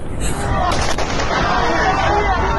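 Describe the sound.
Gunfire aimed at people: a few sharp gunshot cracks ring out close together near the start, buried in a dense, loud wash of rumbling noise with indistinct voices murmuring underneath.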